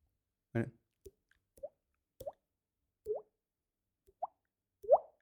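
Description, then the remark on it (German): A voice makes a series of popping water-drop sounds with the mouth, six quick plips with rising pitch spaced about a second apart, clear, after a brief vocal burst at the start. “Aber dein Tropfen kannst du, das ist auch ein nutzloses Talent.”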